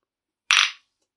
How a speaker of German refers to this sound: Wollen wir nicht anstoßen?